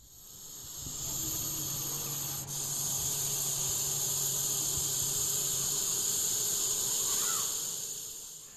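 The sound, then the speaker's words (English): A Russell's viper, a venomous snake of the Indian subcontinent, hisses in one long, steady, rasping breath that holds for several seconds with only a momentary dip. It is fairly loud, with no voices. “Now, that was the telltale hiss of a Russell's viper, a venomous snake that's to be found in the Indian subcontinent, and you would do well not to be bitten by one of these creatures.”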